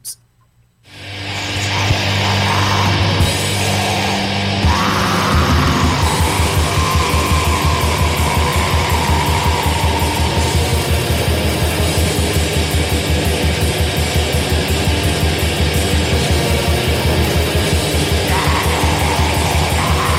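Black metal song, a loud, dense wall of distorted tremolo guitars and relentless rapid drumming that starts abruptly after a second of silence and stays harsh and constant, with no talking over it.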